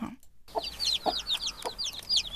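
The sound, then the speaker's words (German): Newly hatched chicks peep rapidly and continuously in high, thin chirps while the mother hen clucks softly and intermittently in the background, with no talking. “Es sind nämlich lauter kleine, frisch geschlüpfte Küken. Ja, natürlich. Und die Henne hört man auch.”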